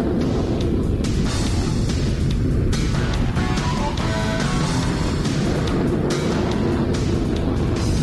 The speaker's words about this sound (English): Flame shot out the exhaust in an explosion of noise, and the hornet screamed down the runway. The pilot pulled back on the stick and climbed so steeply, it looked like he was riding a ball of fire.